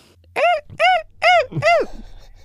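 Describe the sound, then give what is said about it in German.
A human voice imitates the cries of bearded vultures with four loud, rising-and-falling squawking calls in quick succession, the last slightly longer, then silence. “Ich habe es jetzt immerhin mal versucht. Es klingt vielleicht ein bisschen wie Affen, aber das waren eigentlich Walli und Bavaria, zwei Bartgeier”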